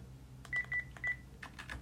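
Three short keypad beeps from a phone being dialed, quickly spaced and mixed with light button clicks, followed by a few more soft taps. Fairly quiet, with no voices.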